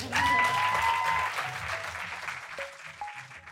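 Audience applause thanking the speakers at the end of a discussion, a dense crackle of many hands clapping at once, loud at first and then slowly thinning out, with a faint whistle and a few voices mixed in.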